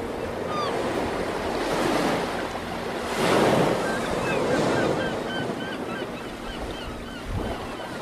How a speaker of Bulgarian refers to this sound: Тук има вълни и чайки. Това на мен особено ми допада, имайки предвид моите родствени връзки с вълните и чайките.